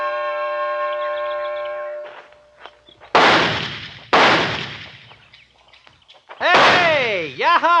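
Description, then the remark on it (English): Six sharp, loud shots from a new target pistol ring out one at a time, fired at a target on a tree, each followed by a brief echoing decay; the last carries a whining, ringing tail. A steady humming tone comes before them. “All six shots from the tree and two of them on the target yet.”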